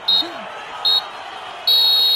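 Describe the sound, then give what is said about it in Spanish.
A referee's final whistle ending a football match: two short, shrill blasts, then a long sustained one that runs to the end, high-pitched and loud over a low murmur of crowd noise. “Y bueno, vamos por finalizado el encuentro, ahí el pitazo final.”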